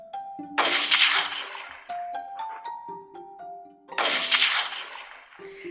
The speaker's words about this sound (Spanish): ¡Cazadores! dijeron los gansos. Les disparaban a ellos y salieron volando a toda velocidad.